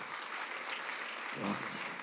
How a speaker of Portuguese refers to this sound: Coloquem-se de pé. Dê uma salva de palmas calorosas para Jesus.